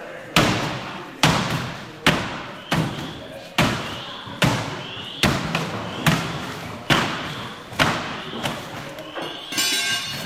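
A Ketchum firefighter in full turnouts with an air tank pounds a sledgehammer through a wall to cut a hole big enough to get through, a steady rhythm of a dozen or so loud, heavy crunching blows about a second apart, each followed by a brief rattle of crumbling debris.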